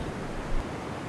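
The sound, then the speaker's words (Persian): A steady wash of rushing, surging water, like waves rolling in, with a brief swell in the middle; no voices. Rising tidal water on a beach reaches the underside of a car's door as the car sits stuck in sand. “ماشین تو داره آب میبره خسرو با پشت دست چشمانش را مالید آب تا زیر در بالا آمده بود و ماشین در ماسه گرفتار”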